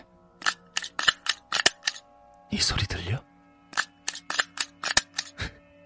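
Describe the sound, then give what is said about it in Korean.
A stapler clicks over and over, about fifteen sharp, crisp snaps in quick, uneven succession. The clicking pauses briefly while a voice asks a short question, then resumes. “그래, 스탬플러야.”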